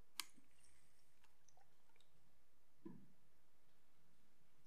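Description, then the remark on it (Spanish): A quiet pause in which someone takes a drink of water: a small click near the start, then a single soft, low gulp as they swallow. No talking, faint. “perdón, voy a tomar agua.”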